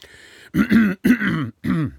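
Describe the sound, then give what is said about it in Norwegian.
Someone clears their throat in three rough, gravelly bursts, the middle ones run together, with short silent gaps between them. “Litt grumsete i halsen i dag.”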